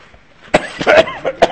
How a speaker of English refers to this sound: Okay, you see, I'm having a little trouble keeping myself from coughing, so I ask you uh, to excuse me, and I will um, will continue next week.